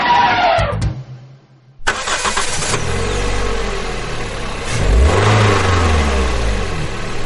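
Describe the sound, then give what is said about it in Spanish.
A small licence-free microcar engine starts up after a short pause, idling with a buzzy rattle before revving up in a loud surge and settling back down. No one speaks. “Escuche, don Carmelo, escuche. Suena bien, ¿eh?”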